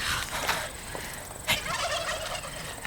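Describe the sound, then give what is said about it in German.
Harsh, raspy bird screeching in a run of rough calls with sharper bursts near the start and middle, fairly loud and continuous, with no voices. “Dieses, dieses Kreischen war das Markenzeichen des gefiederten Schreckens.”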